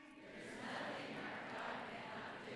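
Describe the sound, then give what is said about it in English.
An audience at a morning church service claps and stomps together, the many hits blurring into a loud, dense, steady roar of rhythmic noise, with no single voice standing out. “We got the we got the claps and the stomps and everything here this morning.”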